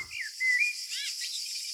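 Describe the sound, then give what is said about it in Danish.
A person whistles an imitation of a chickadee call: a short rising slide, a held steady note, then a few quick wavering chirps. The whistling is moderately loud over a constant airy hiss, with no talking. “er, der, er der også en, en chikade derude?”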